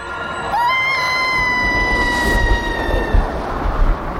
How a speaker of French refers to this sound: Les trois amis s'envolèrent sous les cris déchaînés de Gloutor.